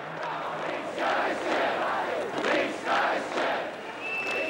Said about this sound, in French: À bas le PC, ce sont les cris de ces manifestants.